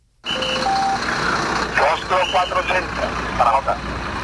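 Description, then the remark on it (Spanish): Busy roadside rescue scene as firefighters free a driver trapped in an overturned car on Calle Aviación in the Calonge industrial estate: a steady engine or hydraulic drone, a couple of short electronic beeps early on, and bursts of people calling out over the machinery. “Ahí eh, escuchamos esos sonidos del rescate.”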